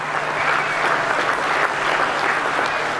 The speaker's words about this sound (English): Crowds of green and gold erupted on the banks of the Brisbane River as history was made.